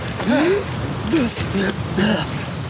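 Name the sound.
storm with heavy rain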